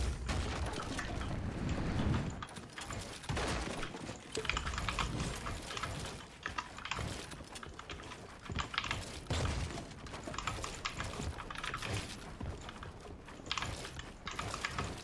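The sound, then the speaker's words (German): Rapid, continuous clatter of computer keyboard keys being pressed, a dense stream of sharp clicks with no pauses, fairly loud and steady throughout without any talking. “Ich drücke halt for real alle Knöpfe.”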